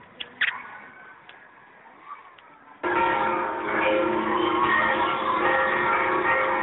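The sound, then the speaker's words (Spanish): Church bells ring out loudly and continuously to welcome a new archbishop, a dense clanging peal that bursts in after a few seconds of quieter background with faint scattered tones. “Estamos escuchando las campanas que están recibiendo con gran alegría”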